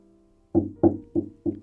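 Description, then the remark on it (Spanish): Four evenly spaced, solid thuds as a mother knocks on a door with something like a broom, each hit fairly loud, with a short dull resonance after it and no voices. “Su mamá golpeó la puerta con algo como una escoba y le dijo que habían venido por él.”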